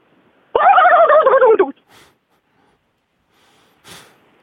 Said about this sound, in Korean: 어, 또 칠면조는 어, 땡스기빙데이에 어, 많이 먹는 음식인데. 네네. 자 칠면조 소리가 저는 잘 기억이 안 나거든요. 자 한번 들어볼게요. 그럼 이제 한번 해보시기 바랍니다. 칠면조 소리요.